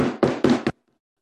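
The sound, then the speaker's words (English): Four quick, firm knocks in a rapid rhythm, imitating a neighbor knocking on a garage door, loud, followed by silence. “on the garage door, I'm like, oh no, here it comes.”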